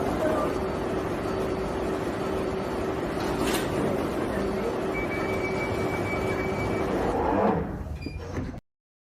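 A London Underground train idles at a platform with a loud, steady rumble and electric hum, a sharp clunk partway through, then a rising whoosh as sliding doors move before the sound cuts off.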